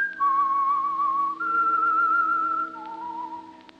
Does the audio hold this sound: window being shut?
no